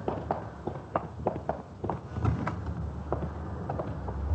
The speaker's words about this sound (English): Would you like to wait in here? Right around back here. I'll open the door for you.